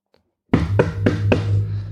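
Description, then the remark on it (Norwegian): Four loud, evenly spaced knocks rap out in quick succession, imitating someone pounding on a hotel room door, over a steady low hum. “Så dro jeg hjem på hotellrommet, sovna på hotellrommet, um, og da uh, begynte å banke på døra, sånn veldig sånn”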